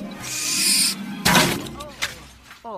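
Owl calls ring out over a rushing, hissy background, with a few short rising cries and a sharp burst partway through, moderately loud.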